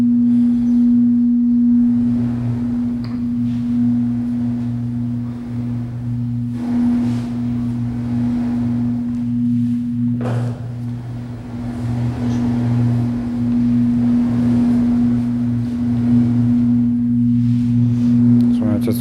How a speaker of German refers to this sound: Rauschen und Wellenrauschen.